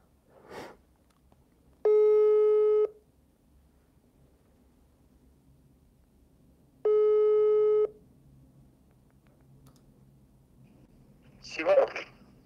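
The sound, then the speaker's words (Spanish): Two long electronic ringback tones sound on a phone line as a call is placed to a caller, evenly spaced about five seconds apart, steady and clear over a faint low hum, with brief rustling noises at the start and end. “Te vamos a hablar, porque sí compartiste.”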